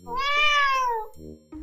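A kitten gives one long, high-pitched meow that rises slightly and then slides down over about a second, followed by two shorter, lower-pitched sounds.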